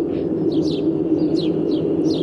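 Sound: sparrows chirping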